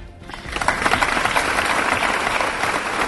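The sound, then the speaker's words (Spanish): A crowd in Girona, Spain bursts into sustained applause after a minute of silence for the latest victim of gender violence, many hands clapping densely and steadily, with no talking. “Girona guarda un minuto de silencio por la última víctima de violencia machista en España.”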